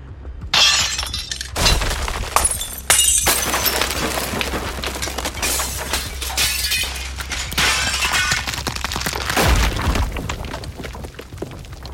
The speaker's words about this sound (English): The shockwave sent me into the wall, along with everything else not nailed down. Glass, stonework, and the marble flooring alike cracked or shattered.